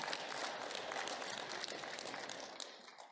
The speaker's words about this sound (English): So, Amen. You can clap. Amen.